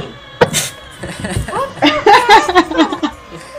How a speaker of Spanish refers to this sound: Tres golpes en sí. Hola. Ah, es con golpes.